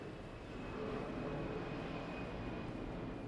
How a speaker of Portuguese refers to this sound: Peraí, ó, avião. Ah. Caceta, essa hora. Fim de semana, cara. Parece Las Vegas aqui. O tempo inteiro avião lindo.